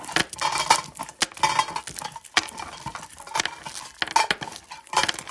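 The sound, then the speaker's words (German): Candies wrapped with cloths are bounced against a table, clattering and tapping repeatedly in quick, irregular bursts, with bright clicking and clinking accents throughout and no voices. “Vielleicht können wir ein Bonbons nehmen mit, äh, mit, äh, mit ähm, Tüchern und ähm, sie dann gegen den Tisch hüpfen lassen.”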